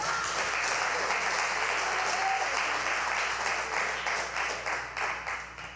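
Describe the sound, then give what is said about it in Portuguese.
An audience applauds together for the Lord Jesus, a dense, steady wash of many hands clapping that gradually thins into distinct rhythmic claps toward the end. “Pode dar uma salva de palmas ao Senhor Jesus.”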